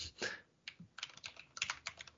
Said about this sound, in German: Okay, jetzt, jetzt äh, hört ihr mal kurz die Tastatur, weil jetzt will ich es auch wissen.